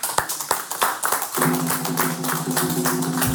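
An audience applauds, starting with a few sharp separate claps that quickly swell into a dense, steady wash of clapping, with a sustained musical tone humming beneath it for the second half.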